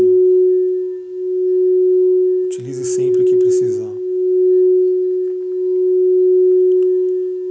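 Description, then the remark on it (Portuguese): A crystal singing bowl rings with a steady, pure sustained tone that gently swells and wavers throughout, while a voice speaks briefly over it partway through. “Eu vou diminuindo o som do cristal.”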